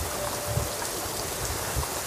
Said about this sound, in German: Ein sanfter Regen fällt in dieser Nacht, welcher nicht nur die Luft vom Kohlenrauch, sondern auch die Gassen von Menschen befreit.